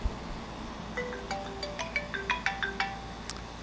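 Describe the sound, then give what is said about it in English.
A phone ringtone for an incoming call plays a quick, bright melody of electronic tones, rising and falling in short notes for a couple of seconds, moderately quiet with no talking over it. “Oh, I'm getting a phone call.”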